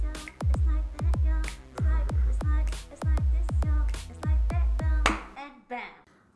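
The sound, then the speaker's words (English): A short, upbeat, license-free instrumental intro theme with punchy, booming drum hits roughly twice a second under layered tonal chords, played loud, then cutting off abruptly into a brief fading tail. “So, in the meantime, let's just get something license free.”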